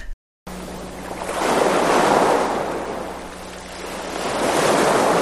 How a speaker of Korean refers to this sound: 오늘은 파도 소리 특집이에요. 남해 송남 해수욕장, 동해 경포 해수욕장, 낙산 해수욕장, 방파제에 부딪히는 파도 소리에 이어서 서해 강호 송모도 해수욕장까지 찍고 지금 왔습니다.